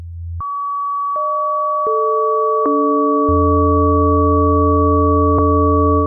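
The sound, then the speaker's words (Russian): Steady electronic sine tones, one per planet, enter one after another with faint clicks, stacking into a sustained dissonant chord of about six pure pitches, including a deep low hum, held loud and unbroken with no voices. Each planet's frequency is 440 divided by its orbital period in years, devised by an Astronomia.ru forum user. “Например, один из обитателей форума «Астрономия.ру» приписал каждой планете частоту, которая равна частному от деления 440 на период обращения планеты в годах.”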